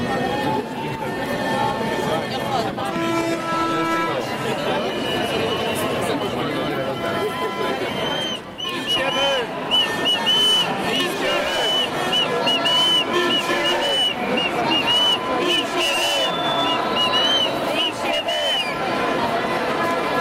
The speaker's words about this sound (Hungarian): Négy óra, elkezdtünk vonulni. Először a fővám megyünk, onnantól pedig majd a, a műegyetem elé.